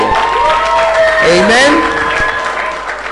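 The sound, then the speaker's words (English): An audience at a Tuesday night church service claps steadily and densely for about three seconds, a loud wash of many hands greeting those present, with scattered voices calling out over the applause before it tapers slightly. “oh, I thought you clap for them, so at least they know you are”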